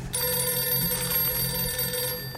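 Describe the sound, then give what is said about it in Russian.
A telephone rings with a steady, continuous electronic bell tone lasting a couple of seconds, fairly loud, with no voices over it; the call is from Sverdlovsk. “Да Рома звонит из Свердловска”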